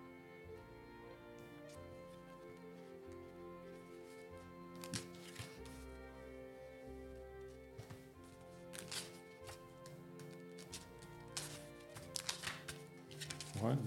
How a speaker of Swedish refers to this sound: får bläddra lite.